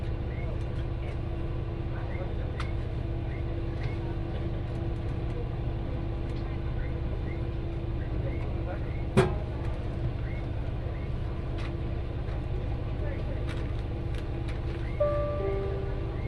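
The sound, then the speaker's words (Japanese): A one-man local train bound for Fukui running, with a steady low engine rumble and a constant hum, a single sharp click partway through, and faint murmuring voices underneath. “この列車は福井行きワンマンカーです。”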